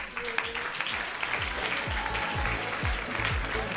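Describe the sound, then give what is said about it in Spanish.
A crowd breaks into loud, dense applause for a student ranked among the world's top 10 at table football (futbolín). The applause holds steady for about four seconds, with a regular low thumping pulse running underneath the clapping. “Un fuerte aplauso para Nicolás.”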